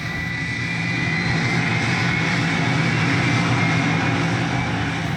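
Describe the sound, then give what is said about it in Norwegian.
A loud, steady, unbroken roar of the jet engines of an old Soviet IL-76 cargo plane flown by Ukrainian pilots, carrying Norwegian special soldiers, vehicles, weapons and ammunition to Afghanistan in 2002, with a thin high whine riding over the dense rumble. No one speaks. “Vi lasta om bord på gamle sovjetiske fly, egentlig.”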